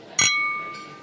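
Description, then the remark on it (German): A single sharp clink of beer glasses striking together in a toast, followed by a bright ringing tone that slowly fades; fairly loud, with no voices. “Prost! Gesundheit!”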